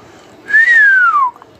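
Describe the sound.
A single clear whistle, made by a person imitating the sound, rises briefly then glides smoothly downward for under a second, fairly loud with no talking around it.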